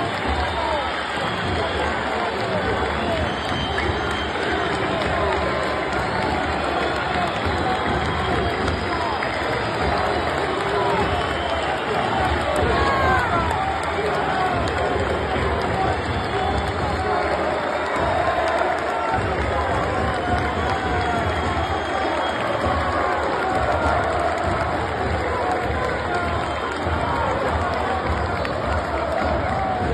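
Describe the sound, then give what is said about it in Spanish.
A large stadium crowd roars continuously, a dense wash of clapping, whistles, shouted voices and an insult blending into a steady, loud din from start to finish, reacting to a penalty as Matías Rojas goes off in a substitution. “decíamos el otro día, es una mezcla de aplauso, silbido y se escuchaba un, un insulto.”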